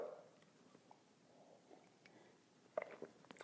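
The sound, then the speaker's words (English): Quiet mouth sounds of someone sipping coffee: soft slurps and a small swallow, with a sharper smack near the end, and no talking. “Fill it with your favorite liquid. I like coffee. And join me now for the unparalleled pleasure, the dopamine hit of the day, the thing that makes everything better the simultaneous sip.”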